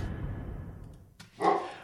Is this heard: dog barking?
yes